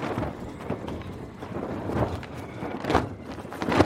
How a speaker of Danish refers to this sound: Det er lyden af et sejl. Med sejlet kan skibene sejle stærkere, og de kan sejle meget længere. Og derfor så var sejlet altså et af vikingernes allervigtigste redskaber.